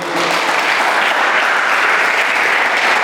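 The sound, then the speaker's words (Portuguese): A church audience bursts into steady, loud applause for Jesus, many hands clapping in a dense, continuous patter that holds evenly for about three seconds with no voices standing out. “Podia dar um amém, um glória, um aplauso a Jesus aí.”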